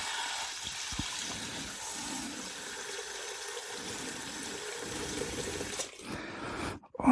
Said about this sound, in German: So, und dann gebe ich da zwei Liter Wasser drauf, so dass der ganze Kram bedeckt ist.